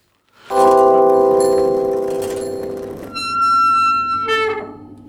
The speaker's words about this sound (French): Bah ouais, ça faisait mal comme euh, le bruit de ce frein là, mal réglé, j'avoue.